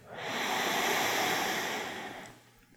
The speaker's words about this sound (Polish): a jeżeli chcecie je bardziej zresetować i skupić się znowu na uwadze, y, skupić swoją uwagę znowu na oddechu, to weźcie głębszy wdech